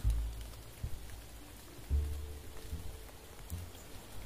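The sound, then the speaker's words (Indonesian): Steady rain hisses across the whole clip, with a few dull low thumps every second or so, like heavier drops or water hitting a surface. No one speaks. “Tanya si lelaki sambil memandang keranjang makanan yang berubah kecoklatan di tengah hujan.”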